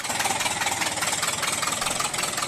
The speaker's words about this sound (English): But uh, oh no, uh, this was a time before mufflers. I mean, have you ever heard what one of these old cars sound like? This is from a video of a refurbished Model T, which will give you a sense of the noise.